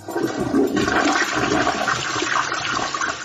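A toilet flushes loudly, a steady rushing swirl of water that holds for a few seconds without any talking.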